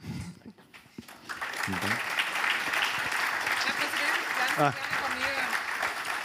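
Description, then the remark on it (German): An audience breaks into steady, sustained applause for Finance Minister Magnus Brunner, a dense wash of clapping that swells after a brief pause and stays loud throughout, with faint voices mixed in. “Einen herzlichen Applaus nochmal für Finanzminister Magnus Brunner.”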